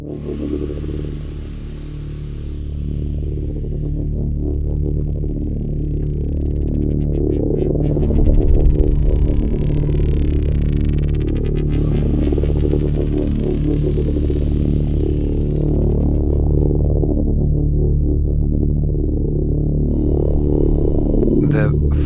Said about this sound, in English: function of the breathing that follows from start to end in this track is to give a kind of meditative feeling or meditative sensation that you are meditating.